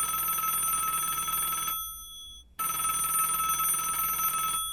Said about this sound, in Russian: И тут зазвонил телефон. «Телефон!»